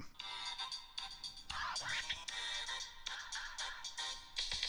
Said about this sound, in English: Oh, hang on. Sorry, um, Seems like I'm getting a phone call or an email or something. Hang on, let me just get that.